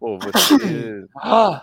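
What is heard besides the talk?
sneeze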